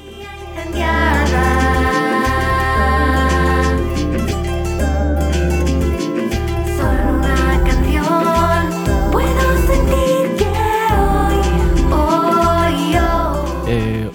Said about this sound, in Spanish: y un día nuevo suena así. Súbenos un poquito la música